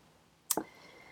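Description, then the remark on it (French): A single quick sip of coffee: a short, sharp slurping burst that lasts only a fraction of a second, followed by faint quiet. Nobody speaks. “Euh, euh, gorgée de café ici.”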